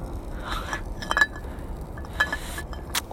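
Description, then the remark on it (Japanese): A metal frying pan clinks and scrapes against a camp stove grate a few times, sitting badly because the pan does not fit the stove's size, with sharp bright knocks spaced irregularly over a low, steady background rumble. No one speaks. “収まりが悪いなぁ。やっちゃったフライパンとコンロの相性。”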